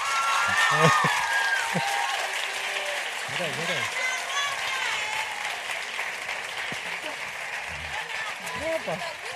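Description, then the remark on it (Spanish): A crowd applauds steadily, a dense wash of clapping with cheers and shouted calls rising over it throughout, loud and sustained without a break, as the creators and two stars of the Netflix series Élite are welcomed onto a stage. “Esto se nos puede alargar mucho, como tengamos que escuchar todos los aplausos y todos los guapo, guapo, guapa, guapa.”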